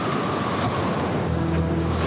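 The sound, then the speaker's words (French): Rough ocean surf in the Southern Ocean roars continuously during a terrible storm with snow, hail and hurricane-strength wind, waves crashing in a dense wash of noise while gusty wind buffets the microphone; a low engine-like hum joins partway through, with no voices. “Dans la mer australe, Isabelle Autissier et Jerry Roof sont aux prises avec une terrible tempête.”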